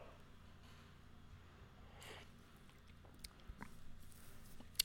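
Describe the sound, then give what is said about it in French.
Someone quietly takes a sip of coffee: a soft slurp followed by a few faint mouth clicks and swallowing noises over a low room hum, with no talking. “Petite gorgée de café.”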